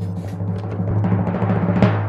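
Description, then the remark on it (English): A fast, steady drum roll of rapid snare hits builds slightly in intensity, peaking with a brighter accent near the end. It plays alone with no talking. “I've got the drum roll and the crowd applause ready for you Hit again. the drum roll!”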